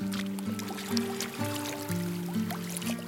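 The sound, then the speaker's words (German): Lake water laps and sloshes gently against the end of a wooden plank jetty out on a lake, in soft, irregular splashes, with a steady low tonal hum running underneath. No one speaks. “Ich setze den Rucksack ab, setze mich, lasse die Füße über dem Wasser baumeln und starte die Tonaufnahme für die heutige Folge.”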